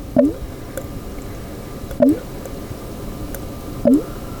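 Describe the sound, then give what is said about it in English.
A fermentation airlock bubbling on a batch of apple cider in progress: three short, gurgling blips, each a quick rising plop, spaced about two seconds apart in a steady rhythm, fairly quiet over a faint background hiss. “That is the sound of the airlock on my Apple Cider in Progress.”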